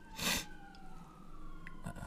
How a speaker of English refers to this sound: Uh, those are some sirens.